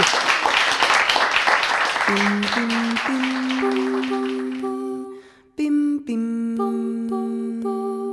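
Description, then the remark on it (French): An audience at a talk at the Ombre Blanche bookshop on 25 January 2022 breaks into steady, dense applause thanking the guest historian, gradually thinning out as a simple melodic tune fades in underneath, the clapping dying away after about five seconds while the music carries on alone. “Je vais vous demander de la remercier aussi chaleureusement parce que c'était son premier exercice euh, comme ça en librairie.”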